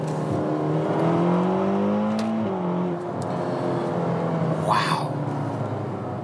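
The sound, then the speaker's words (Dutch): A Ferrari GTC4Lusso T sports car engine revs steadily while driving, its tone climbing and dipping through gear changes, loud with a constant road rumble and a brief whoosh near the end. “dat klinkt goed, uh, Wouter. Ja. De GTC Quattro Luso T”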